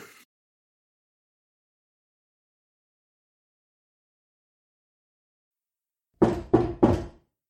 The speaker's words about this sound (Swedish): Jag vaknar av ett högt bankande ljud. Hela kistan vibrerar.